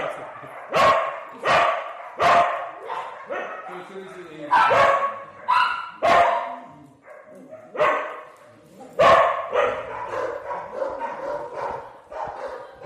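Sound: dogs barking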